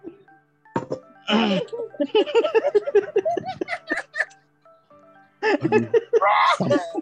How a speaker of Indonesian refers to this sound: Sampai batuk saya.